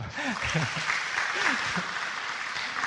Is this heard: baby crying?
no